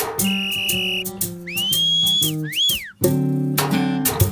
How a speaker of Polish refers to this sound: Jestem gwizdek niezbywały, do szkodzenia doskonały.